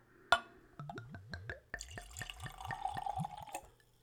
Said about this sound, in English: And now, after cleansing my palate with some water, let's try the Bak's brand. So let's open this bottle. Another screw cap. And another clean Glencairn. Let's go for a pour.